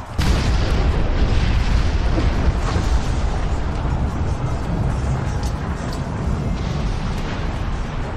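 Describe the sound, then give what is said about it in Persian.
A heavy cannon blast, fired by the Venetians at the Ottomans, strikes the Parthenon on the Acropolis, where gunpowder was stored, and it erupts into a sustained, rumbling explosion, with deep low-end roar and crackling debris continuing loudly for several seconds without fading much. “عثمانی ها در داخل پارتنون باروت انبار کرده بودند و وقتی که ونیزی ها توپی رو به سمت عثمانی ها شلیک کردند، گلوله توپ به پارتنون اصابت کرد و پارتنون منفجر شد”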